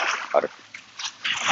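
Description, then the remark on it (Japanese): Ocean water washing in at the shoreline during a morning walk along the coast, a soft hissing slosh that swells, fades briefly, then rises again, moderately loud. “今日僕はですね、あの、海岸沿いに来て、波の音とかですね、鳥の声とか船の音とか入ったらごめんなさい。”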